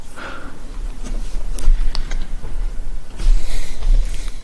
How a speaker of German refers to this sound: Musste mich schon wieder räuspern.